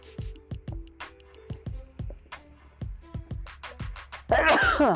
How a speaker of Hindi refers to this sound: sorry छिंक आ गई मुझे ए पानी में गड़बड़ है इसके लिए छिंक आ गई होगी शायद पानी में भी फर्क है